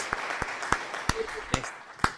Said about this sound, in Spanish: Ya, ya escuché la aplauso. Gracias, gracias.